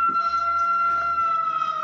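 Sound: siren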